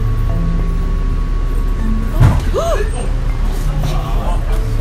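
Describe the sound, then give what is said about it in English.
Over a steady engine rumble inside a bus heading one morning to Bedford, northwest of Boston, a single sharp thud lands midway as the bus bumps into the car in front at low speed, followed by a brief rising squeal and continued idling noise. “It's just a little bit of a bus crash into the vehicle in front of us.”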